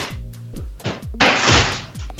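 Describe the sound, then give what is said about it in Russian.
A book falls with a series of dull, low thumps, then a louder, brief rustling crash as it lands. No one speaks. “Нет, у меня упала, упала книжка.”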